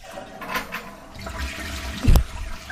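toilet flushing

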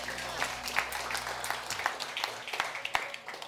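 audience clapping

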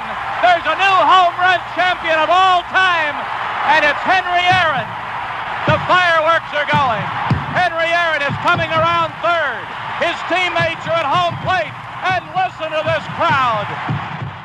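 stadium crowd cheering

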